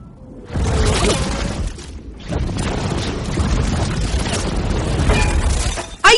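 Loud, dense machine gun fire crackles in sustained bursts, pausing briefly before resuming, with a chaotic, booming, crashing quality and no voices.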